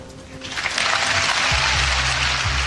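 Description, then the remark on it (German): Loud, sustained applause from a crowd of about 20,000 students and affiliates of Harvard University after a speech, a dense wash of clapping that swells within the first second and holds steady, with a low hum entering partway through. “und hat von den 20.000 Studierenden und Angehörigen von der Harvard Elite Uni lauten Applaus bekommen für diese Aussagen.”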